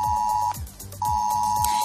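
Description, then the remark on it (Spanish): A loud, steady electronic beep tone on a phone, an emergency alert warning that comes with a notification when in the zone of a catastrophe or emergency, sounding in two long bursts separated by a brief gap, with a low pulsing rhythm underneath. “A partir de hoy, un pitido como este”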